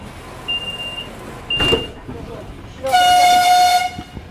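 A Ukrzaliznytsia train in Ukraine sounds its horn as it departs: a loud, sustained blast of about a second, rich in stacked tones, after a brief high whistle and a short burst of rumbling noise; faint background murmur throughout.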